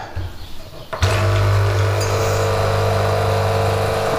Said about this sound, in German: Jetzt erstmal läuft die Kaffeetasse voll.